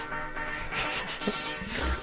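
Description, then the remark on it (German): A few sharp, short computer mouse clicks as someone searches the internet for a record, spaced irregularly, over a steady background hiss with no talking. “Und man hört das Mausklicken.”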